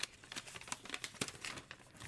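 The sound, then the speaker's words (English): Soft, continuous rustling and crinkling of paper slips being stirred around in a bowl, a dense run of small dry scratches and crackles, fairly quiet, with no voices. “I'm rustling my bowl.”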